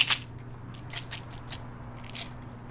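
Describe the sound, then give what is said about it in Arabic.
A leather pouch and a small box inside it, holding Veronal, are handled: a sharp opening click, then several soft rustles and light scrapes spaced apart, quiet over a faint steady hum. “لقينا بين أغراضها هذا الكيس الجلد وفيه هاي العلبة”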